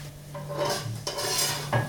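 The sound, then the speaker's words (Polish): A utensil scrapes and stirs in a frying pan in several short bursts over a steady low hum and a faint sizzle while pancakes for croquettes are being fried. No one speaks. “I nad chłodną patelnią odwracamy ją sobie tym samym przyrządem, z którego będziemy później korzystać przy smażeniu naleśników.”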